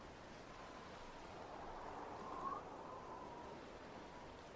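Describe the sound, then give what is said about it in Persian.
A steady, continuous wash of flowing water and waves, fairly soft and unbroken, with a brief faint chirp rising near the middle and no voices. “به صدای آب گوش کنید سرورم”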